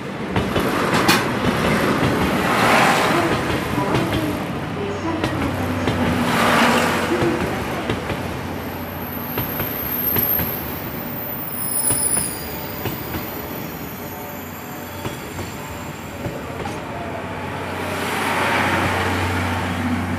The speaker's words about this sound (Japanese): まもなく5番線に22時ちょうど発青森行き急行浜那須が到着いたします危険ですので白線より下がってお待ちくださいまもなく5番線に列車が到着しますご注意ください